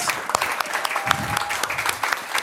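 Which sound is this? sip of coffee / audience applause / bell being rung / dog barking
audience applause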